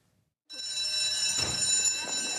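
A school bell rings loudly and steadily, its metallic electric clang starting abruptly after a moment of silence and continuing without pause to the end.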